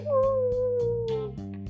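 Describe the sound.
A single drawn-out howl imitated by a voice, a steady tone sliding slightly downward for over a second, set against soft rhythmic background music.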